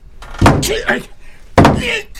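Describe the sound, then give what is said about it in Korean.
A grandfather pounds a hammer hard on a bedroom door, two heavy booming blows about a second apart, each loud and sharp with a rattling, resonant tail. “할아버지가 사정없이 내 방문을 내려치고 계셨다.”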